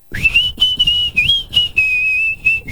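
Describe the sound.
A person whistles a steady, high tune in several sustained phrases with slight pitch wavering, a painter-like vibrato, fairly loud, with no talking.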